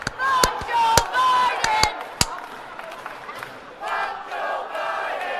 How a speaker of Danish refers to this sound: Det er sjovt at se, at man ved, at de her tosser, de ikke kan holde takt, når de klapper. Det er dem til en koncert, som er sådan...